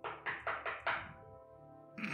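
knocking on a door

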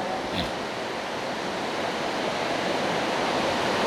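heavy rain

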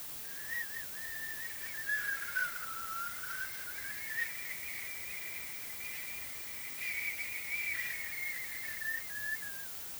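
white noise

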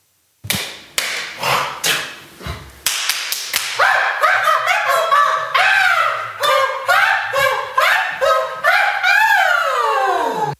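hands slapping together

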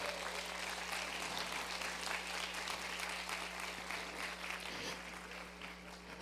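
audience applauding

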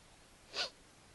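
coughing

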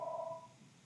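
phone ringing

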